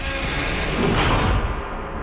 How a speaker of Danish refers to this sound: Han brager ud gennem døren for kælderen.